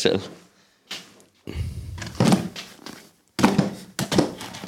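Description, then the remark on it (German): A chair clunks and knocks apart in a series of irregular wooden thunks and bumps, with people talking around the noises. “mir fällt gerade der Stuhl auseinander.”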